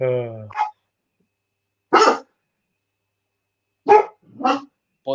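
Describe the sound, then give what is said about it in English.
Dogs being walked past a window bark sharply several times at irregular intervals, fairly loud, with a two-bark burst near the end; a person speaks a single word just before the barking begins. “because at least somebody walking the dogs past the window.”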